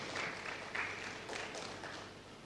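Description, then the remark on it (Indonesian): An audience claps for Jesus together in a dense, steady burst of applause that keeps going throughout, a continuous wash of many hands with slight swells, at a moderate level and without any talking. “Beri tepuk tangan untuk Tuhan Yesus.”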